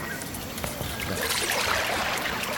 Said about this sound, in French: Alors là, on est au péage. Vous entendez les bips du péage dans le bus. En même temps, vous avez l'enregistrement de l'eau au bord de la mer. Et vous avez les oiseaux de la jungle.